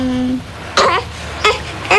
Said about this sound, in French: reportage avec un noir et blanc, euh, Françoise Hardy et Jacques Dutronc à la maternité. Et on entend un bébé, c'est justement Thomas Dutronc.